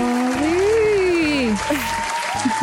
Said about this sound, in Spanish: Aplausos en el fondo.